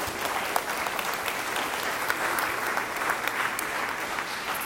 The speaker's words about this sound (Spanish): dale una ofrenda de palmas. Señor.